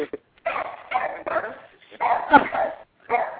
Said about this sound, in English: Oh, I hear a doggy. Yep. Hear it. My little security system.